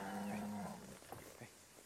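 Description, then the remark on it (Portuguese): A black horse lets out a low, drawn-out nicker up close, followed by a few soft thumps as it stamps its hooves hard on the ground, as if ready to be mounted, beside a corral gate in the dark. No one speaks. “Meu cavalo batendo as patas no chão com força e relinchando como se estivesse preparado para que eu montasse.”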